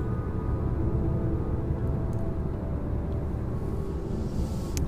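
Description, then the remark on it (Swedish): Steady low rumble inside a car driving to Östersund on a fine day, a constant droning road noise with no breaks, fairly loud, with no voices. “Så att eh, alltså sitter jag här i bilen till Östersund i en jättefin dag.”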